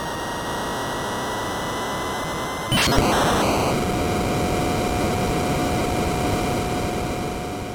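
A Tomcat fighter jet in a retro NES video game roars to life with steady, hissy engine noise, surging abruptly about three seconds in as it automatically takes off from the deck, with faint electronic tones humming underneath. No one speaks.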